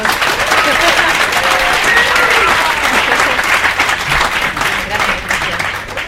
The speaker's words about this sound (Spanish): dale un aplauso por favor